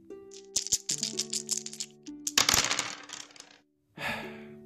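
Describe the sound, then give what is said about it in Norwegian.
Small dice, rolled to pick which radio program to listen to, clatter and tumble across a hard surface in a quick burst of sharp clicks, a louder rattling rush, a brief pause, then another short roll, with a steady tonal hum underneath. “Hvilket program på Radio Revolt skal du høre på i dag? Terningene vil gi deg svaret.”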